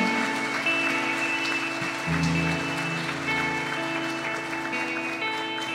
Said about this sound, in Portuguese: Se você crer, dê uma salva de palmas bem forte a Ele. Aleluia.